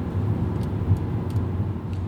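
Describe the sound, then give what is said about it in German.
Steady low road rumble from a moving car, with a few faint, sparse crackles and ticks of tires rolling over grit and salt spread on the road against ice after snow that day. No one speaks. “Das ist Rollsplit oder hier Salz, was gestreut worden ist, damit es nicht glatt ist.”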